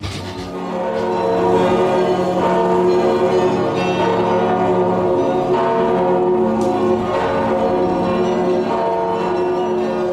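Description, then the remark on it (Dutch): Carillon bells ring from the Martini Tower, a church tower in Groningen, a dense layered wash of many bell tones sounding together and sustaining, loud and steady throughout with no voices. “we horen klokken, we horen een carillon.”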